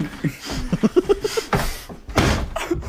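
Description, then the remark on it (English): A person throws his body into a door trying to break it: two loud, booming thuds about half a second apart, following a few brief vocal sounds. “Dude, I'm breaking your door.”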